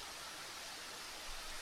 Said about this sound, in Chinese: 现在你听到的背景音是七孔瀑布的声音。